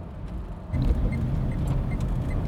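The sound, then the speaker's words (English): A car drives for about an hour along a road to the other side of the hill toward Glen Affric, with a steady low engine rumble and tyre noise growing slightly louder after a moment, and faint rattles and clicks from inside the vehicle. “It's back in the car to drive an hour or so to the other side of the hill.”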